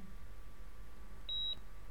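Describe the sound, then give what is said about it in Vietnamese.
A single short, high-pitched electronic beep from a heart monitor in an emergency room, as a patient's heartbeat weakens, lasting about a third of a second, over a low, steady background hum. “không xong rồi tim của bệnh nhân đang suy nhược trong phòng cấp cứu một bác sĩ khẽ nói nhìn đường sống tượng trưng cho nhịp tim càng ngày càng yếu dần dần biến thành một đường thẳng”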